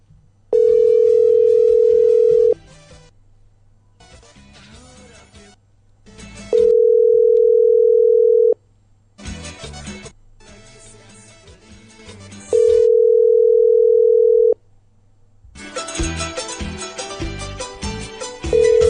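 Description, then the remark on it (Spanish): A phone call placed during a radio program rings out with no answer: three long, steady mid-pitched ringback tones, each about two seconds, separated by pauses filled with a busy background sound of music or noise. “No contesta la Fabiola, contestó, pero está, está emputada y no quiere hablar.”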